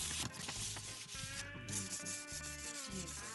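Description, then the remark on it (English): Two paper slips with written questions are rubbed together in a steady, continuous scratchy rustle lasting a few seconds, fairly loud, with no talking over it. “Well, this is the sound of two of the questions merging and”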